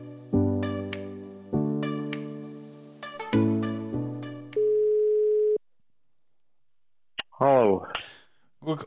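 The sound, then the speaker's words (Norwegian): Telephone tones on an outgoing call: a string of loud, chord-like beeps, then one sustained steady tone, a short silence, and a voice briefly answering at the end. “Så da ringer vi TV-en Wold.”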